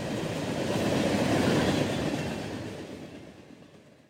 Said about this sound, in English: Until then, the most frequently heard locomotive sights and sounds in this part of California will be from the many slow-moving freight trains traveling through the valley.